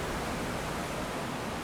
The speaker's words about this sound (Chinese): 我现在所在的地方是英国最南端，应该讲东南的海滩。是英吉利海峡海浪的声音。